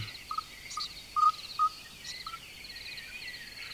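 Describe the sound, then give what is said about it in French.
Thin, high chirps come in a quick irregular series, a few louder peeps standing out, like nestlings begging as a parent bird feeds them, over a steady faint insect-like hiss. “Peut-être, cette fois, il a amené un escargot pour nourrir sa petite famille.”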